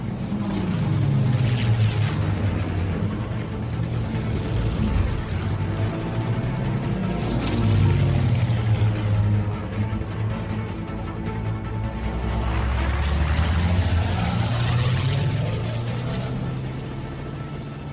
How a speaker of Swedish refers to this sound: då kunde de spela in flygplanet på lördagen och sen på söndagen spelade de in båtarna